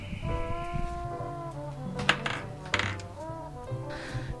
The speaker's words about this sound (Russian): А закрою-ка я окна, чтобы вот эти вот грузовики или что там проезжает мимо такое шумящее, грохочущее, не очень мешало нашему общению.